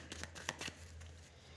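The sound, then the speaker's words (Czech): Tarot cards being shuffled during a card reading about a future partner: a quick run of soft papery flicks and slaps in the first half, over a low steady hum, then only faint background. “A už se dívám na vaši fotku, míchám u toho karty a podíváme se, jaká bude energie v partnerské oblasti v letech.”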